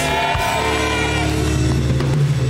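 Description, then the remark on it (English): An audience shouts "Yes" together in one loud, sustained burst of many voices, a dense crowd roar lasting a couple of seconds. “Everybody shouted, Yes.”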